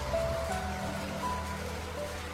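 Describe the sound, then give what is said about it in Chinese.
Steady pattering rain makes a dense, even hiss throughout, with a low humming drone underneath and a few faint tonal whines drifting in and out. “淅淅沥沥的雨声吞没了所有的一切。”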